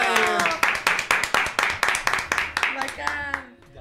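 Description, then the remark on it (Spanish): An audience on Radio Lab Chile claps for the year's last 'Dime que Comes' in a steady, rapid rhythm of sharp, loud hand claps, with voices mixed in underneath, before the clapping thins out and fades at the end. “Entonces te pedimos con un aplauso el Dime que Comes, último día que Come del año.”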